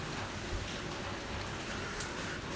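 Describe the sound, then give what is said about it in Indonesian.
Steady rain falls continuously, a dense, even hiss of drops pattering on surfaces, fairly soft and unbroken throughout, with no voices. “Apa aduh ya jeng hujan?”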